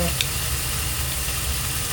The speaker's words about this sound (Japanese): 今はね牛タンを焼いてます